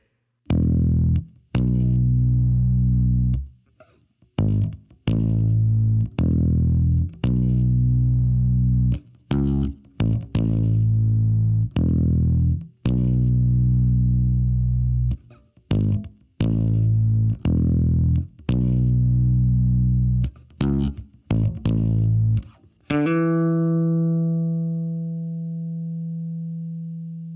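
A distorted bass guitar plays sustained root notes, each struck together with a punchy kick drum hit in a steady, spacious pattern, ending on a long ringing note that fades out.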